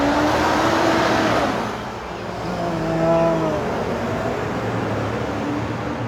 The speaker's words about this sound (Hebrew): אתה פותח שידור בפארק, ציפורים מצייצות, אה, צל, ואתה מתחיל את השידור, בריאו, מישהו מניע איזה מסור חשמלי, מקצצת דשא.